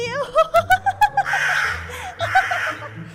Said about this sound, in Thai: ด้วยความดีใจเจ้ากาจึงได้ตะโกนเสียงดังไม่หยุด